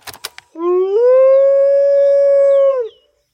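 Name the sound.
wolf howling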